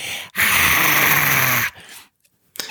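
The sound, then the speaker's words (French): A voice imitates a film character's little cries with one loud, raspy, strained squeal lasting over a second, followed by a short pause and a brief breathy sound. “elle fait que ça elle fait des petits cris”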